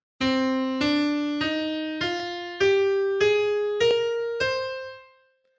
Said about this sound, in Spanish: O sea, esa es la escala, esas son las notas que son usadas en la música del exorcista.